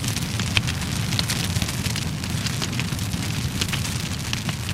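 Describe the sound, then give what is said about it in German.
A living-room fire reaches flashover, the heat making huge flames shoot explosively through the room; it roars steadily at full intensity, a dense rushing wall of noise with a deep low rumble and sharp crackles and pops scattered throughout, with no voices. “Durch die Hitze kommt es zu einer Durchzündung, dem sogenannten Flashover. Explosionsartig schießen riesige Flammen durch den Raum und entzünden alles, was sich darin aufhält.”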